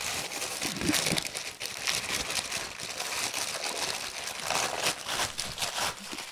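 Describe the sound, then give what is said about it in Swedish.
Paper being torn and crinkled as a birthday present, a T-shirt with a new logo, is unwrapped, a steady run of loud rustling and crackling bursts with no voices over it. “Åh, jag får öppna två paket.”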